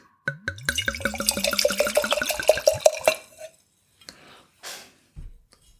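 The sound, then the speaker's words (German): Red wine glugs steadily into a glass for about three seconds, a rising gurgling pitch as it fills, followed by a couple of soft clinks and shuffles. “Ja, schauen wir mal, wie der Wein im Glas ist.”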